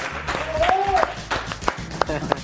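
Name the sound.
lukewarm applause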